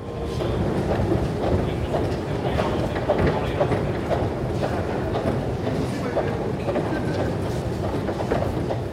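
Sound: S-Bahn commuter train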